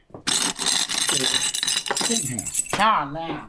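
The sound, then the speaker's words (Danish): A busy jangle of keys clinking and scraping against a small ceramic bowl for a few seconds as a bunch of keys, with a car key and several differently coloured keys, is picked up from it in an entrance hall, followed by a brief voice at the end. “I en lille keramisk skål lå et nøglebund med en øh. bilnøgle og flere forskellige farvede nøgler.”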